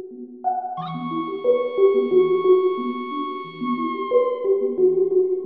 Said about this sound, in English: To me, this sounds almost just like a kind of like fuzzy marimba. Like it doesn't necessarily sound like a whale sound